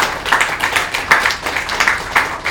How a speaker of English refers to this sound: Yeah, can we clap for her?